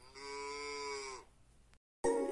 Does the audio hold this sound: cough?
no